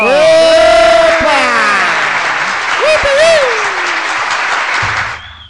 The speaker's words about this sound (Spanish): Les quiero, eh, decir algo y les voy a mandar un saludo muy especial a la red de comunicaciones de la Comuna 15 Guayabal. Un aplauso para ella.